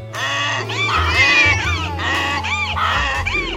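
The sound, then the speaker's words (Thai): Four animals cry out loudly at once at night in front of a house window, their wailing, rising and falling calls overlapping into one continuous noisy chorus with no pause. “ทั้งสี่ร้องเสียงดังแข่งกันไม่ยอมหยุดเสียงทั้งหมดประสานกันในยามค่ำคืน กลายเป็นเสียงที่น่ากลัว ชวนขนลุกขนพองเป็นอย่างยิ่ง”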